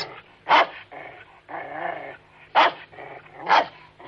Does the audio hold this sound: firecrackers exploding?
no